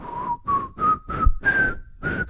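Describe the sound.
A person whistles a short melody in six clear notes, each pitch stepping slightly higher, with a steady rhythm and fairly loud tone, no talking.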